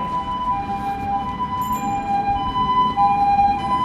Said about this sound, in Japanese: なんかやたらさっきからいろいろ救急車とかパトカーとかなんですかねわーわーわーわーあれしてますね